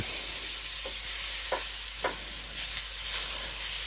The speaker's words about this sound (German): So, die Blätter müssen, glaube ich, nur so einen ganz kurzen Moment hier durch die Pfanne gezogen werden, dass sie ein bisschen zusammenfallen und eben auch Feuchtigkeit verlieren.